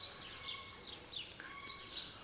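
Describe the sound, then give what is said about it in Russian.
Several birds chirp and sing in overlapping bursts of high, bright notes, fairly quiet, over a soft outdoor hush in the mountains as fog spreads down from them, with no one talking. “Слышите, как птицы поют?”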